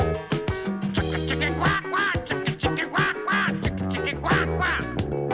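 Nasal duck quacks come in short bursts over an upbeat backing of drums and sustained bass notes, repeating every second or so against the steady music.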